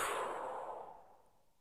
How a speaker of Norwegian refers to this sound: Og så gjør vi det en siste gang. Pust godt inn med nesa. Og hold pusten. Pust ut.